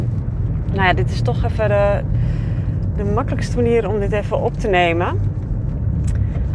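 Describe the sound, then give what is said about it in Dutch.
Steady low rumble of a car cabin on the move while driving to school, engine drone and road noise filling the background throughout while a person talks over it. “zoals je vast wel kan horen, zit ik eh, weer in de auto”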